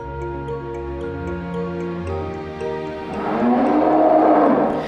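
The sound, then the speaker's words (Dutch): A few cows low in a farmer's barn near Amsterdam, with several long, deep moos overlapping one after another, growing louder and rougher toward the end. No one speaks. “We spreken hem in de stal waar nog een paar van zijn koeien lopen.”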